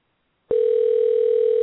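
A steady telephone dial tone, heard while calling someone back after a dropped call, starts abruptly after a brief silence and holds at a constant pitch, loud, with no voices over it.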